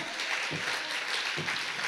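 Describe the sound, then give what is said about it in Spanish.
An audience applauds in a steady, dense wash of clapping that holds at an even loudness throughout, with a couple of brief low voice-like swells rising beneath it. “Si le vas a dar el aplauso.”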